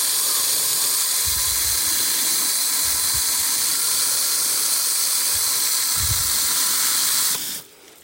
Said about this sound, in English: And then back to the front of the greenhouse to water the peppers. And I've run out of holes or it's got stuck, but I think if I squirt it, it'll reach. Gosh, it's noisy.